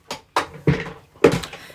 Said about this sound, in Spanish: Espera que me voy a subir la silla porque no llego.